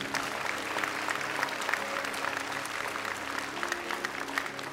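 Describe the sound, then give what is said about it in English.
A church audience applauds steadily in praise of God, a dense wash of many hands clapping at once that holds at an even, fairly loud level throughout, with no one speaking over it. “Can we give God praise for all those?”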